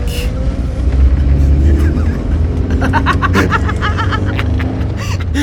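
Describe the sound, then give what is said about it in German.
A car engine hums and builds steadily as the vehicle pulls away, a low continuous rumble with rising tone, mixed with scattered clicks and brief bursts of laughter-like sounds. “So, jetzt ganz ruhig Gas geben und wir sind weg”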